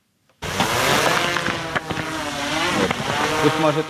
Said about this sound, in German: Eine schwarze Drohne vom Typ Mavic steigt auf in den wolkenlosen blauen Himmel nahe der Frontlinie im Gebiet Donetsk.